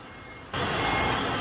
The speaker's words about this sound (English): It's just before 8 in the morning, and trucks have gathered here from reservoirs across the island to deliver water to the residents of Keelung.